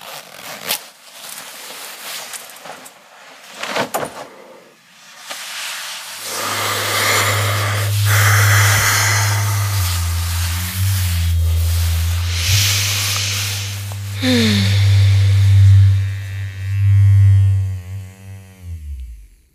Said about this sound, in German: Das war Bruno ein Prostatamassager von Lelo, dem Sponsor unserer Staffel.